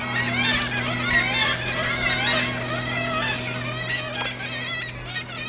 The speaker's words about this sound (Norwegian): Disse måkene i Tromsø vekker ikke bare god sommerstemning. Måkene snapper nemlig mat ut av hendene på folk, og stuper ned mot turister som aner fred og ingen fare.